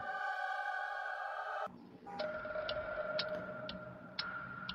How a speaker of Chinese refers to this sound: 伴随着滴滴答答的钟声，张丽萍沉沉睡去。